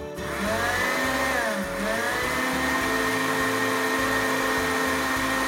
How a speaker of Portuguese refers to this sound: Duas xícaras de açúcar, açúcar demerara e uma colher de sopa de amido de milho. Vamos bater tudo isso. Deixa eu ligar o meu liquidificador e bater bem isso aqui. Tem que bater bem, hein? Vamos lá.